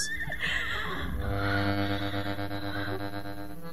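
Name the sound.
horse neighing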